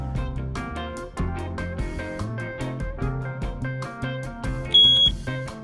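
An ATG tank monitor alarm for underground storage tanks (USTs) gives a single short, high-pitched electronic beep near the end, sounding clearly over upbeat background music with no one talking.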